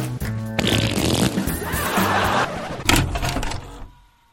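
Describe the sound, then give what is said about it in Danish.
A person makes a long, loud, sputtering fart noise with their mouth, imitating the sound of someone sitting on the toilet, a buzzy raspberry lasting about four seconds with a brief break and a final burst before it trails off. “Hvis du sidder på toilettet, er det ikke det fedeste leje, med kort? Fordi alt, hvad du kan høre, det er det her.”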